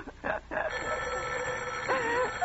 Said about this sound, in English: oh, let it ring. Let it go on ringing. It's a trick of some kind. I won't answer it. I won't answer it. I won't. Even if it goes on ringing all night, I won't answer it.